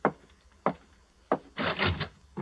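A door being opened: a few sharp wooden clunks from the latch, then a rough scraping creak as it swings, ending with another thud. No one speaks.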